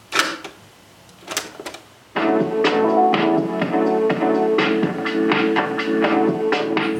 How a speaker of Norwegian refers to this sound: En hvit, liten og firkanta boks blir plassert i en grå kassettspiller.